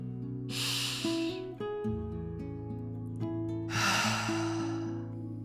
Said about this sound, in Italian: Fai un respiro insieme a me.